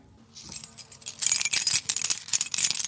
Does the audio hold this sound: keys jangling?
yes